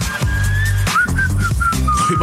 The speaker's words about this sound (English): I'll just whistle to a song that has no context to me at all.